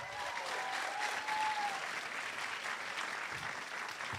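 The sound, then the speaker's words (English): Sustained live audience applause for Kevin Biegel, a dense steady patter of many hands clapping at an even loudness throughout, with a faint cheer or whistle rising briefly early on. “They keep keep clapping uh, for Kevin Biegel.”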